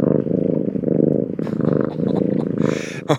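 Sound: cat purring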